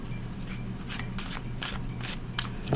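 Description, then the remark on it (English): Tarot cards are shuffled, a run of crisp papery swishes repeating at a steady pace over a faint low hum, with no voices. “the tarot deck, the Aleister Crowley Thoth deck. Hear that shuffle.”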